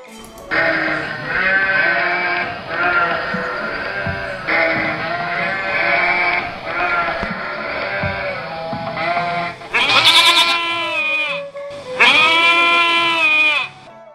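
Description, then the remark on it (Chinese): A flock of sheep and goats, with a few wild goats mixed in, bleats over and over as the shepherd brings the flock back from grazing: a dense chorus of wavering, nasal cries that overlap continuously, ending with two louder, higher-pitched bleats standing out on their own. “这天，牧羊人放羊回来，发现有几只野山羊混进来了。”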